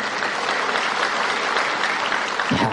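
Sustained audience applause, a dense steady patter of many hands clapping at an even loudness throughout, with a brief low voice-like sound near the end.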